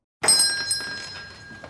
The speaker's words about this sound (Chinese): 门铃又响了，有另外一位魔女走进来了。